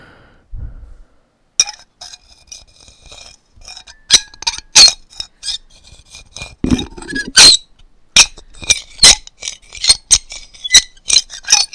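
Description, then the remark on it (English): A very squeaky chair creaks and squeaks as a person is swung around in it, with a run of sharp, uneven clicks and squeals growing denser toward the end. It's fairly loud, with no talking. “Sorry, it's a very squeaky chair.”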